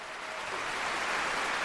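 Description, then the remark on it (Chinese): Steady, dense applause from a large crowd in the East Berlin concert hall after Bernstein conducted the Ode to Freedom symphony fills the whole stretch, a continuous wash of many hands clapping that swells slightly louder toward the end, with no voices. “这是来自东柏林音乐大厅的掌声。”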